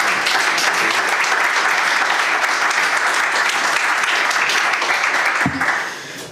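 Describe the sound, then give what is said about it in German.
Sustained audience applause at a lecture and panel discussion on the history of NATO's eastern policy, a dense crackle of many hands clapping at steady loudness, briefly tapering near the end as the clapping thins out. “Ich danke Ihnen. Bitteschön. Applaus”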